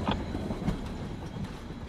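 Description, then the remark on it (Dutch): A train rolls along the rails with a steady low rumble and faint rhythmic clickety-clack of wheels over joints, continuous with no voices. “Deze trein houdt halt bij jouw nageslacht, het circus en de beruchte grijze zone.”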